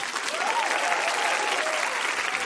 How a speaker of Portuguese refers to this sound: Aplaudam Gustavo Cerbasi.